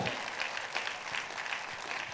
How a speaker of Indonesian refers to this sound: Saudara saya nggak dengar tepuk tangan yang paling meriah dari tempat ini.